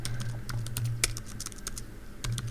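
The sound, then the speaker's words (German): Rapid, irregular clicking of keys on a computer keyboard as someone enters details on an airline's website, steady for a couple of seconds, with a low hum underneath and no talking. “Ah ja, okay, muss ein bisschen tippen.”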